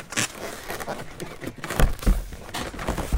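Balloons being handled, with a steady run of rubbing, crinkly friction noises and short squeaky bursts that come and go unevenly over a few seconds, fairly loud and with no talking.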